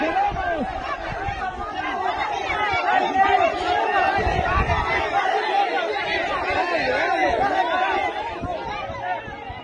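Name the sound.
crowd chatter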